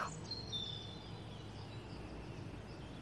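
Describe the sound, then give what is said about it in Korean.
Faint bird chirps from birds nesting in a city apartment complex drift in through a slightly open window over the first second, thin and high, then fade into a steady low background hum of outdoor ambience. “도시의 아파트 단지에도 새가 둥지를 트나 새들의 소리는 준우가 없을 때만 들을 수 있지”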